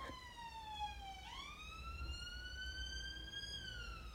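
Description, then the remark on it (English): A police car siren wails steadily as it passes outside, its tone sliding down and then rising again over a low background rumble, with no one speaking. “Can you hear the sirens?”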